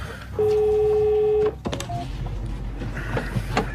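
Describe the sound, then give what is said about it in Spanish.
A telephone tone sounds once, a clear, steady electronic beep lasting about a second, followed by a few soft clicks and quiet room noise. “El teléfono.”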